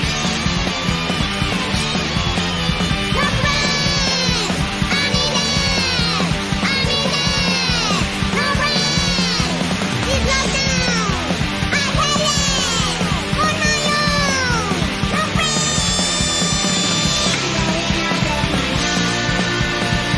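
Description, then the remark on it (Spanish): A short burst of loud, fast, teenage-style punk song bordering on hardcore, with raw shouted vocals over dense distorted guitars and pounding drums that stay full and relentless from start to finish. “Y es divertidísimo, es un tema super punky, rollo adolescente, casi hardcore.”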